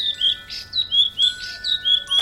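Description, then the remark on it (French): A bird sings a rapid series of bright, high chirps and short whistled phrases in a steady repeating rhythm, clear, with no voices present. “Et quand il eut fini de chanter, il battit des ailes et s'envola devant eux.”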